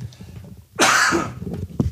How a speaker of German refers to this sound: Ihr müsst keine Pause machen, wenn ich huste.